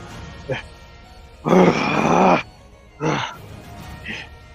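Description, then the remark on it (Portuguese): During a game, a voice imitates a dragon's roar: one long, harsh, rasping growl lasting about a second, followed by a shorter snarl, with quieter grunts around them. “O dragão vai gritar pra vocês.”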